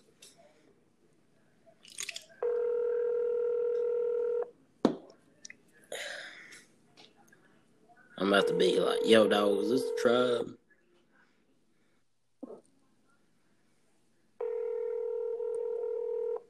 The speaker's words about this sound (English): Let's say I better call them before they close. Star six seven. Here we go. See if they answer. All right, here we go. That was ringing. Here we go.